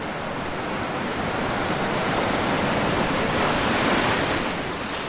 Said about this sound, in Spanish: Y por supuesto, el sonido del mar, que contiene a la isla y a la vez la deja tan lejos de todo.